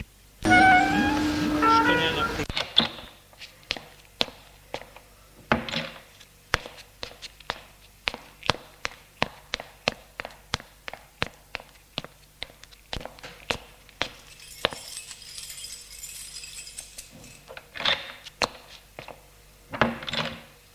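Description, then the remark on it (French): After a brief burst of noisy rumble, people get out of a car and footsteps walk at a steady pace across a hard floor into an apartment building's entryway, crisp individual steps, with a faint hiss partway through. “Et ils sortent de voiture et entrent dans l'allée.”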